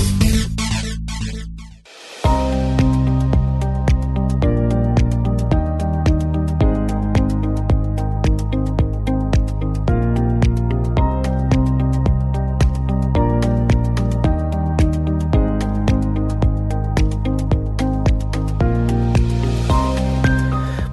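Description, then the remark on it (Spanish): The instrumental theme tune of the computing show Enredando, not heard before this season, plays on its own, with a steady pulsing rhythm, a strong bass line and shifting sustained chords, briefly cutting out near the start before continuing loudly throughout. “vamos ya con los contenidos y con esta sintonía que no la habíamos eh, oído hasta ahora en esta temporada”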